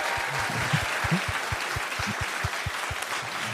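A small round of audience applause: steady, dense clapping from a modest crowd, fairly loud and even throughout with no voices standing out, a few louder individual claps popping through the texture.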